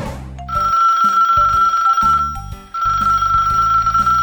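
A telephone rings loudly and continuously, a bright electronic ringtone holding a steady high tone over a low melodic pattern that shifts in short steps; no one speaks.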